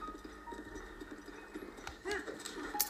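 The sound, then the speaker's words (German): Steady, rhythmic clip-clop of a video game horse's hooves trotting at a moderate pace high up on a mountain, set against soft sustained tonal background music, with a few brighter chimes near the end. “Das Pferd ist ziemlich hoch auf so einem Berg.”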